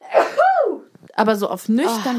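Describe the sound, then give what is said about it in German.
A single sneeze bursts out with a breathy, rising-then-falling voiced tail, followed by a short pause and then a man speaking at normal volume. “Gesundheit.”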